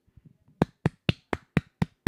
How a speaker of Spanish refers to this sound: Mira, espera, voy a aplaudir. Bueno, mira, voy a aplaudirle a esas personas que no son así.